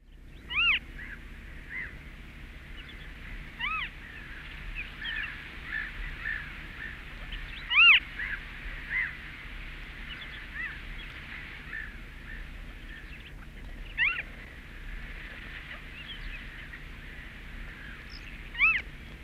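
Western marsh harrier calls: a handful of thin, high-pitched, mewing cries spaced irregularly over about twenty seconds, fairly faint against a steady low background rumble, with no talking.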